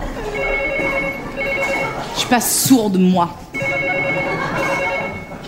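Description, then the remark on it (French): A telephone rings steadily with a bright, trilling tone, then pauses while a woman speaks briefly, and the ringing resumes, loud. “Téléphone J'entends.”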